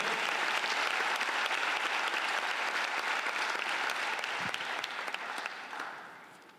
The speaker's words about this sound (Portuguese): Uma salva de palmas para esse Jesus que nos deu vida eterna. Amém?